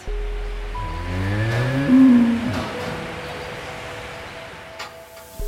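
A cow lets out a long, loud moo, its low call rising and wavering over a couple of seconds, followed by the quieter hum and clatter of a dairy barn with 120 cows and a milking robot, in the village of Spijk by the German border. No talking.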